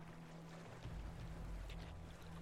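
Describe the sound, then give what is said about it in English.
A fishing boat pulls ashore where the Vingaard River meets the Kalaman Bay: a steady low engine-like hum with churning water and rumbling surf. A heavier surge of water comes midway, and no one speaks. “As your fishing vessel pulls ashore, you can see that there are some other villagers that are struggling to get things settled, struggling to get some of their boats ashore as well.”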